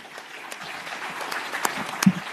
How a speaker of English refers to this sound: Let's clap hands for Barrett.